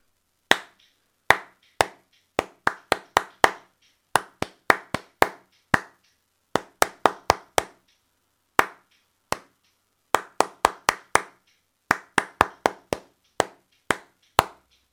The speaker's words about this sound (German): Ich klatsche es nämlich, das ist nur der Rhythmus.